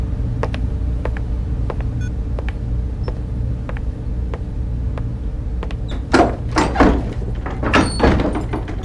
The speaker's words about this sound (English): Hold on, the door's opening again. Is he coming back?